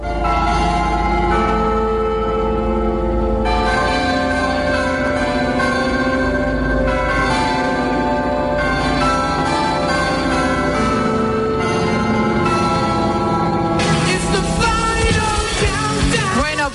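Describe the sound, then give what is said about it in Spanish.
Loud carillon bells of the City Hall of Zamora ring out a catchy 1980s pop melody, overlapping notes sounding one after another in a steady tune with rich, lingering resonance and no voices. “¿Has reconocido la música que tocan estas campanas?”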